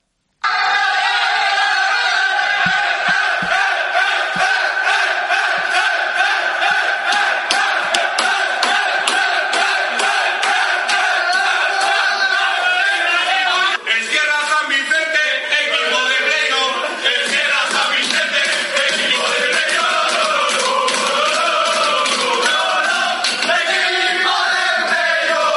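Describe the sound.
Players of the Sierra San Vicente futsal team, huddled in the locker room and banging on the treatment table, shout and chant together in loud, rhythmic unison, a sustained boisterous team celebration with overlapping voices and steady bursts of cheering throughout.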